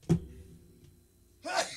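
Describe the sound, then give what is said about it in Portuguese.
A single sneeze: a short breathy catch at the start, a quiet pause, then a sharp, airy burst near the end. No talking. “É, já vou espirrar, hein?”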